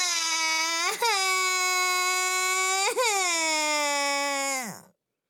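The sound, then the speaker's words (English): A child cries in one long, loud, high-pitched wail, catching its breath twice before the cry slides downward and stops. No one speaks over it. “But Felice pinched her arm and made her cry.”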